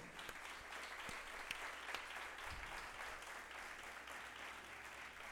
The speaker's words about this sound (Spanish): El día que tú sientas, apláudele fuerte al Señor.